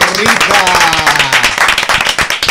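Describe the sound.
A group applauds with dense, overlapping claps that continue steadily and fairly loudly throughout, while a few voices can be heard beneath the clapping.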